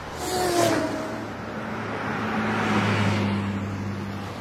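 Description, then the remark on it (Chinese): Road traffic rushes by, with a loud whoosh early on as a car speeds past and a short, steady horn tone. A deep engine rumble and hum carry on underneath. “汽车呼啸而过，喇叭滴滴响着，皮皮吓坏了。”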